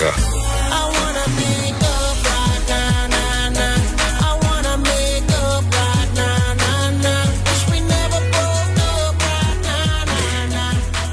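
A loud, full R&B song plays throughout, with a steady thumping beat, deep sliding bass, and a sung vocal line riding over dense layered instrumentation.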